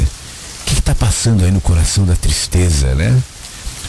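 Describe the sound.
Steady rain hisses in the background throughout, a constant wash of falling drops beneath a man speaking close up in a calm, measured voice.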